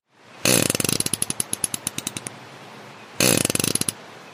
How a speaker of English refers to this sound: And just in case you're terminally disappointed that you didn't hear what a farting fish sounds like, we've got the sound just for you.